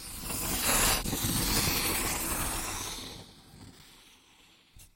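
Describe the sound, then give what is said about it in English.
Steady scratching of a pencil sketching across paper, a dry rasping texture with quick strokes that gradually softens and fades toward the end, with no voices. “Sketching on the paper with a pencil.”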